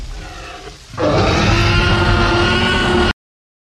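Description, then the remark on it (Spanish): A Tyrannosaurus rex roar sound effect from Jurassic Park, made by combining the sounds of a tiger, a crocodile and a baby elephant: a low rumbling growl swells into a loud, harsh, sustained roar lasting about two seconds before cutting off abruptly. No one speaks. “Juntaron el sonido de un tigre con el de un cocodrilo, con el de un bebé elefante para conseguir el sonido del T-Rex.”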